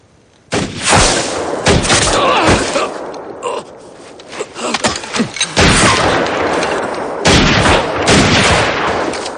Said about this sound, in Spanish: El ranchero ha sido alcanzado por un disparo. Al advertir el ruido, los demás hombres cogen sus armas.